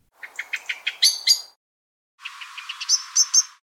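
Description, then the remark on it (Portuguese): A short phrase of song from a blackbird, a large thrush, a run of quick notes ending in louder whistles, then after a brief silence a brown thornbill, a bird that imitates other birds, sings a similar phrase mimicking the blackbird, clear. “Agora eu vou tocar para vocês de uma vez só o canto do Blackbird e na sequência o canto do acantisa castanho”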